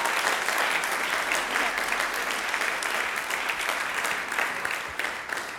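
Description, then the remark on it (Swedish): An audience applauds steadily, a dense, loud wash of many hands clapping at once that holds for several seconds and thins slightly toward the end, with no talking over it. “Vi ger dem en stor applåd och sen så får de gå ner och sätta sig.”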